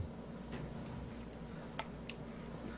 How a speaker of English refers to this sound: All I hear is clicking. What do I hear clicking? What the hell?